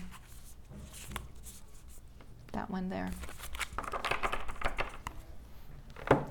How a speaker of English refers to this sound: Okay, so I'm going to pull your oracle card. We'll see what what that has to say. I've already shuffled the deck, so I'm not going to bother shuffling it. I might just kind of select one for you.